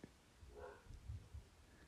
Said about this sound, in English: Uh, got a dog barking here.